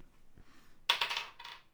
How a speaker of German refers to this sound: gut, ich denke, wir würfeln, oder? Ja, wir würfeln.